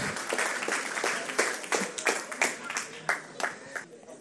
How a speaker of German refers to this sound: Einen großen Applaus für euch. Dankeschön.